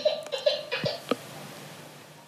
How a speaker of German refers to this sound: oh, das Babyfon. ich muss einen Cut machen und bin gleich wieder da.